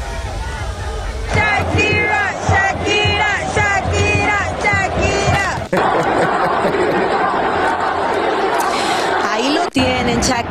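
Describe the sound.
A large stadium crowd roars continuously, with loud booing and voices rising together in a rhythmic chant of a name, the dense noise filling the whole stretch with brief dips.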